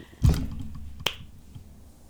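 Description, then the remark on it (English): A headphone cord slaps against a microphone twice, first with a heavy, booming thump, then a sharper, brighter smack about a second later. Both are loud, with no talking. “Slapping the mic with your headphones. Slap my cord.”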